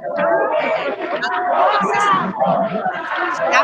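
A protest crowd, marching to the door of the city hall, shouting the chants "Fora Bolsonaro" and "genocida": many voices yelling together in a loud, continuous mass, with rising and falling surges and no clear pauses.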